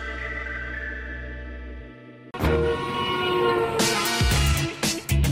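A train horn blares a steady, rich chord whose pitch drops as the train passes, showing the Doppler effect, then gives way to the loud rumble and rattle of rail cars rushing by.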